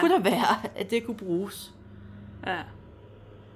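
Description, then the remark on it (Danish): A low, steady tractor engine rumble drones faintly outside, under a couple of people talking, and continues on its own after they pause, with one more brief spoken word. “Hvis du kunne høre det der, så var det bare en traktor.”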